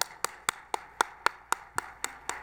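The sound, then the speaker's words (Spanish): An audience applauding to welcome an author to speak, a run of sharp, evenly spaced claps, about four per second, crisp and steady in rhythm, with no voices over it. “pues nada más les pido un aplauso para recibirlo, por favor.”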